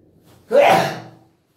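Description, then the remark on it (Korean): A single sneeze bursts out sharply into the mic, a breathy, noisy blast that fades over about a second, with no talking around it. “재채기 할때 연기로 대고 하라고 했어요.”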